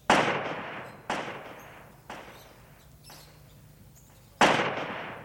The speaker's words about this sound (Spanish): En tan apacibles lares, el eco repetía una y otra vez cada disparo que hacía.